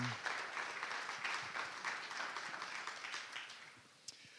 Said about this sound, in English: Good morning, church. How about another round of applause for that Guatemala team?